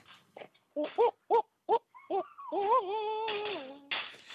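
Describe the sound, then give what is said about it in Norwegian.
A goat lets out a quick series of short bleats, then a long, wavering, human-like scream that rises and wobbles before breaking off, loud and alone. “Det er geit.”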